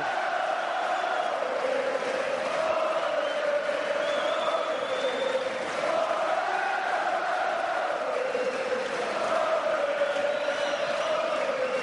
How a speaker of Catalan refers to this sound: Espectacular la celebració, els crits de victòria, els crits de guerra, l'alegria, punja en l'aire, aplaudiments, els membres dels Verds, els castellers de Vilafranca